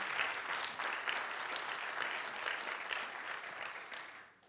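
A church crowd at Community Bible Church applauds steadily for the new Pastoral Care and Connections pastor, a dense crackle of many hands clapping at an even level before tapering off at the end. No one speaks over it.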